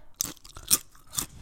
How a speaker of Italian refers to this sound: E mangiando le patatine!